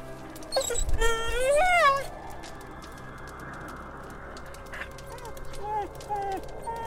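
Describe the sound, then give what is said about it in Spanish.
Snow the dog lets out a single terrible howl in fright, a loud, quavering wail that rises and falls over about a second, then fades into a quieter background with a few faint chirps. “Me disponía a añadir un puñado de ramas a mi fuego, cuando Snow lanzó un aullido terrible y corrió a refugiarse entre mis piernas aterrorizado.”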